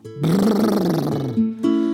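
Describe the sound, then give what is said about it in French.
A bear growls grumpily about the cold on a windy winter morning, a deep rumbling snarl that swells for about a second, dips briefly, then rises again in a short second burst. “Quel froid froidure Ronchonne l'ours”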